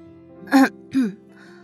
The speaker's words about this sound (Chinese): 等沈冰的背影消失，陶如雪轻微咳嗽一声